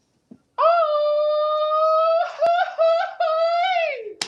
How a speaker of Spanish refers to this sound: Así gritan los mexicanos.